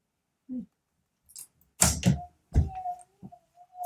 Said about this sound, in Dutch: Oh, ja. oh, stoot tegen de camera.